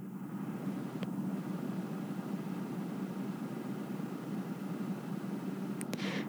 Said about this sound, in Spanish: o hay cierta vibración donde están, yo estoy en el coche, entonces hay cierta vibración